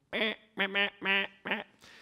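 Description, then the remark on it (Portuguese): A zebra finch, recorded in an experiment, sings a short phrase of four nasal, buzzy syllables in quick rhythmic succession, followed by a faint hiss. No one speaks over it. “Isso aqui é um experimento realizado em mandarim, isso aqui é um canto de mandarim, uma coisa tipo.”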